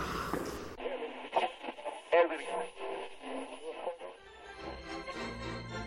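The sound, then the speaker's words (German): A radio plays after a brief burst of static, with a voice coming through alongside music, moderately loud and slightly thin in tone, continuing steadily to the end. “Ich höre jetzt lieber Radio.”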